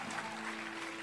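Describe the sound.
A crowd clapping softly, slowly and continuously to imitate the sound of rain, the dense patter of many hands blending into a rain-like hiss. It stays steady throughout, with a faint low hum underneath.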